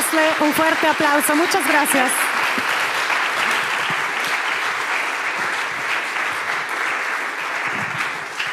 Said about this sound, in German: Wow, Gebt ihnen doch einen Applaus. Vielen Dank euch.